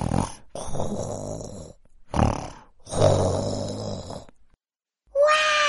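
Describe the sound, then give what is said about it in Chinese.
A voice pinches its nose and gruffly imitates a papa bear's snoring: three gruff, rumbling snorts, long then short then long, with a loud rasp. After a brief silence comes a short, high-pitched vocal sound. “大笨熊捏着鼻子，粗声粗气的模仿起熊爸爸的呼噜声。”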